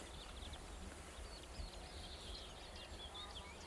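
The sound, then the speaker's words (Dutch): Horses, a harem with a few foals, graze greedily on fresh grass on the path just ahead, with a steady crunching and tearing of grass and occasional soft hoof steps, while small birds chirp faintly in the background of a quiet outdoor setting. “Ze staken over en eh, ze grazen hier uh, gulzig het gras, het verse gras.”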